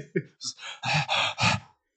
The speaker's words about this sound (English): Sorry for the heavy breathing, everybody. If that sounds horrible, we'll edit that out and, post.